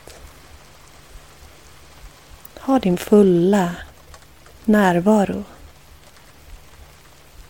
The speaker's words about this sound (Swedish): Hur låter regnet? Väcker det några minnen? Kan du tillåta dig att under två minuter bara lyssna på regnet?